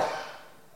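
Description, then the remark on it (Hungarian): One sneeze: a sudden, breathy burst that is loudest at the very start, then trails off quickly into a quieter hiss. No one is talking. “Köhögés, prüszkölés, az élet így is jó.”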